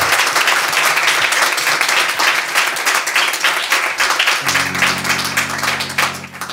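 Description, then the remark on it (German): An audience at a live performance in the cellar of the Kulturkaufhaus Dussmann breaks into loud, sustained applause, dense clapping filling the whole stretch, with a low steady tone entering beneath it toward the end. “Ein großer Applaus.”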